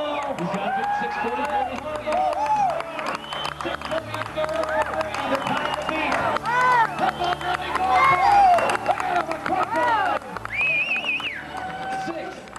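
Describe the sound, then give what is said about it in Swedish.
A large crowd cheers and whoops loudly and continuously as a downhill mountain bike racer crosses the finish line, with shouts and excited voices rising above a dense roar of applause, energetic throughout. “Ljudet ni hörde är från en video där Greg Hairball går i mål”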